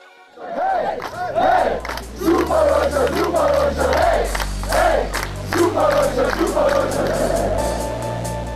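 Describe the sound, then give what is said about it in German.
The German men's hockey team chant and cheer in loud, rhythmic unison, celebrating their bronze medal at the 2016 Olympics in Rio, their shouted voices rising and falling over a steady low musical beat, the celebration sustained throughout. “Die deutschen Hockey-Jungs feiern ihre Bronzemedaille 2016 in Rio.”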